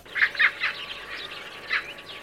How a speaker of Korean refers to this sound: 아유, 오늘따라 왜 저렇게 새들이 요란하게 우는 거야? 아, 반가운 손님이라도 오르나 보지.